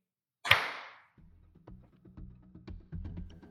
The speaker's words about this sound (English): Let's just do another clap.